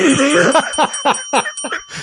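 A bell rings with a thin, lingering metallic tone while someone laughs in a series of quick, breathy bursts over about two seconds.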